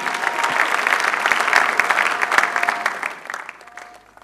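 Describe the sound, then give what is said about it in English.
An audience breaks into loud, sustained applause in praise of Jesus at a night church service, a dense wash of many hands clapping that holds steady for about three seconds before tapering off. “Give Jesus another big clap of praise.”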